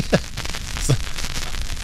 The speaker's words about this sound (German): Ich, ich brauche ein bisschen muckelige Stimmung, weil ich, ich habe mal hier so ein ähm, Kaminfeuer, würde ich mal im Hintergrund laufen lassen. Oh, das ist. Okay, das klingt eher, als würde gerade was abrennen.